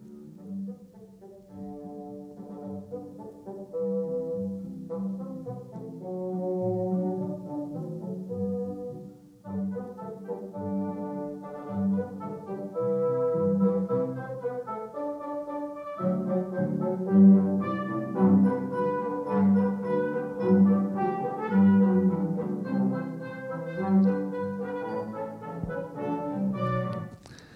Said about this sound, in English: You know, as I was trying to think of, you know, like an illustration for this, uh, I thought of like, you know, like a symphony, like an orchestra playing a song. I thought, what if family could be, could sound something like this?